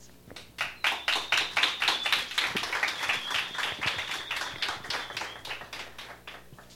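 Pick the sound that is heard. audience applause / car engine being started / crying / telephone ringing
audience applause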